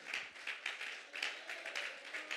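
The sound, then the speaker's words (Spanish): A small group claps unevenly in applause for the Lord, a ragged patter of sharp hand claps overlapping in a steady stream, fairly soft overall, with no voices over it. “¿Cómo hay que aplaudir al Señor?”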